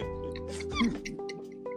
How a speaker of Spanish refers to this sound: Es el mono ardilla.